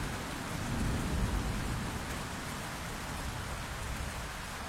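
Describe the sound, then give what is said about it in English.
Heavy rain pours down steadily in a dense, continuous hiss, with a low rumble of thunder swelling briefly in the background. No one speaks. “Rain started to pour down relentlessly.”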